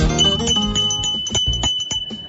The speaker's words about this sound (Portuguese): Essa aqui é a campainha do artesanato mineiro